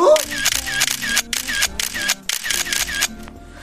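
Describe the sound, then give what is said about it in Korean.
A phone camera shutter fires in a quick, uneven burst of about ten sharp, bright clicks over roughly three seconds, over a steady low tonal background, during a photo shoot of a woman posing by the sea. “다리 자르고 한 번 더 찍어볼게요.”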